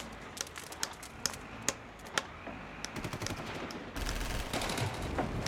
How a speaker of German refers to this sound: Da. Hören Sie das auch? Ja. Was ist das? Kampflärm? Ja, klingt wie Kampflärm.